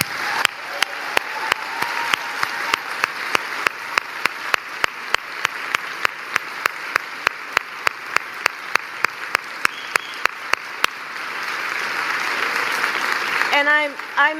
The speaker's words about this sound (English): And I thank them for the time that I had with them today. Can we please applaud them?